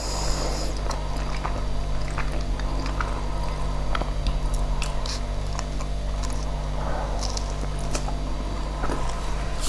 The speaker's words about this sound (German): Gut, mein Schmatzen. Was heißt Schmatzen? Ich habe ja meinen Mund zu, aber es klingt ja trotzdem wie Schmatzen.